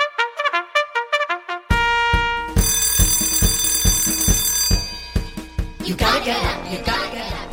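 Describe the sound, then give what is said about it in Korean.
A bright bell rings in a quick run of repeated strikes for about two seconds, then gives way to an upbeat musical jingle with sustained tones and a steady beat, introducing an FM radio program's snack giveaway segment. “조종이 울렸네 동네방네 맛있다고 소문난 간식 맛집 FM 대행지표 간식 나가요”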